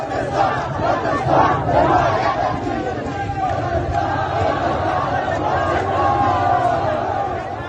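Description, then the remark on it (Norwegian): A huge crowd of many thousands of protesters demonstrating in Baluchistan, Iran, chants slogans in unison, shouting 'Kurdistan, Kurdistan, we support you'. It is a dense, continuous roar of many voices with rhythmic swells, loud and sustained throughout. “Vi hører lyd fra Balusjistan i Iran. Det er mange tusen mennesker som demonstrerer.”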